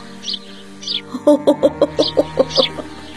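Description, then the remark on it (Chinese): A hungry swallow chick chirps insistently at a woman, a quick run of about ten short, bright peeps in steady rhythm, after a few scattered high tweets at the start. “我正担心身后我妈的大嗓门把燕宝宝吓着了，却见燕宝宝冲着我妈啾啾的叫。”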